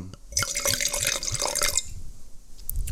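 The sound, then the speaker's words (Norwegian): A 2018 Gustav Lorentz top wine pours into a glass, a bright gurgling trickle with clinking splashes lasting about a second and a half before tapering off into quiet. “helle opp litt ekstra i glasset.”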